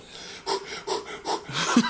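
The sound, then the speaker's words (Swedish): Exaggerated, heavy deep breathing: four quick, rhythmic huffs of air in a row, the last ending in a slight voiced wheeze. “Djupa andetag.”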